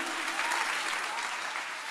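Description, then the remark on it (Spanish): An audience breaks into steady, dense applause for the Lord, a continuous wash of many hands clapping at an even loudness throughout, with no voices standing out. “Si usted le va a dar un aplauso al Señor aquí.”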